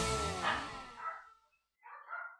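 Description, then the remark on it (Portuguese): Several dogs bark and yelp in a noisy burst, followed by a short pause and then another round of higher-pitched yelping, loud. “Gente, ouve a gritaria de cachorro agora.”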